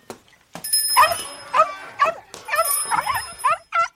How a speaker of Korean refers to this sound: 나가자마자 짖기 시작했다.